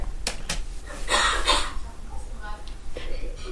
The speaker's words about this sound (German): Da habe ich wohl gehustet. Mich wollen wir ja nicht hören. Das heißt, wir können mich einfach rausschneiden.